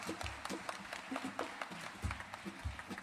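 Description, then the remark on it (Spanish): A crowd claps steadily for a few seconds, a dense patter of many hands blending into an even wash of applause, fairly soft overall with no voices on top. The audience is applauding at a performance by the murga (carnival troupe) a troupe from O Grove. “Eh, un aplauso para este público, por favor.”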